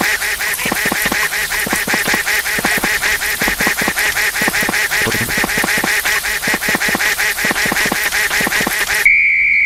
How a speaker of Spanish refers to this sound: Recuerden eh, que el tono del pato no cambie y vayan despacito, ¿sí? presionen unos dos pasitos, luego se detienen y dependiendo que haga el pato hacia dónde vaya, derecha o izquierda,